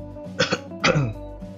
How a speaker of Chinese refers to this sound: 那如果有人黏在背后黏着你，哦，你就稍微转个头，哦，咳嗽几声吓吓他